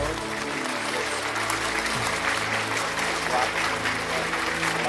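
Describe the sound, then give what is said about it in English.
An audience breaks into loud, sustained applause welcoming a visiting preacher at a religious gathering, a dense wash of clapping that holds steady for about five seconds, with indistinct voices and cheers mixed into the din. “So wherever you are, I want you to, I want you to welcome him with a clapping ovation and a pounding ovation in the name of the Lord.”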